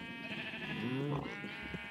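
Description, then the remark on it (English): A sheep bleats in a video game (Minecraft) in a drawn-out, wavering cry that swells midway and trails off, set against a steady background hum. “You're a oh. bunch uh, of sheep.”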